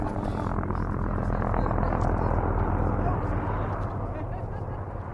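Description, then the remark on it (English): Helicopters drone loudly and steadily overhead while chasing bands of wild mustangs across the desert toward a trap, their rotors beating in a fast, continuous rhythm with a deep rumble underneath that barely fades over several seconds. “As the helicopters buzzed into view, dust clouds rose in the distance from the desert floor, a telltale sign that the pilots had found bands of Mustangs and were chasing them to the trap, sometimes more than a 10 mile run.”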